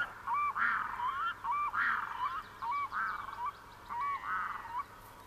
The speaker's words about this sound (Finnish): Ikiaikainen, alkukantainen ja mystinen ääni. Kaksi kaakkuria lentää ylitseni. Hetki on pysähdyttävä, suorastaan maaginen. Kaakkurien huuto yöttömässä yössä.